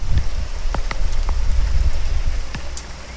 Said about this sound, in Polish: deszcz. Deszcz, a więc jest to najodpowiedniejsza pogoda na słuchanie, gadanie i czytanie o horrorze.